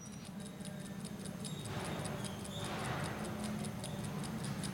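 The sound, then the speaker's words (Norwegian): An old mechanical watch, once worn by its owner in Norway, ticks steadily and quickly with the microphone held up to it, each tick a small sharp click over a low background hum and faint rustling. No one speaks. “Og hvis du holder mikrofonen litt rundt hjørnet her, så hører du den tikke.”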